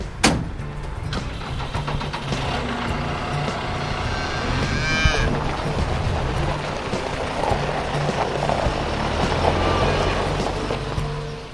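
Cattle lowing in a busy farmyard, several drawn-out moos rising over a steady low rumble of machinery and engine noise, fairly loud throughout, with no talking.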